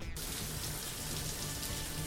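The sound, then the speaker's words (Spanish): Shower water runs steadily, a dense, even hiss of spray spattering on a surface, holding a constant level without pauses or voices. “De hecho, teníamos un, un, un audio, no sé si lo tienes por ahí, ellos, de, de, un Te Toca que él grabó en, en la ducha, concretamente.”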